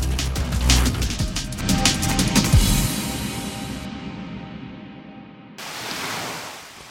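Ocean waves wash and break on a shore in a steady, broad roar of surf, with a brief lull near the end before another wave surges in. No one speaks.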